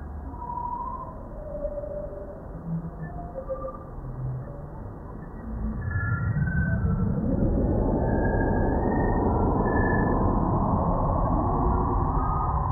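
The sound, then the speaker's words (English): A sonification of space telescope image data of a stellar nursery with tall columns of gas and dust, combined with Chandra data: scattered, eerie synthetic pings and soft tones that swell around midway into a dense, louder droning wash with faint rising pitches. No voices are heard. “being able to take that data and combine it with chandra data where you're seeing slightly older stars around it that combination of data taking that and bringing it into something you can hear is really exciting well let's hear some of it”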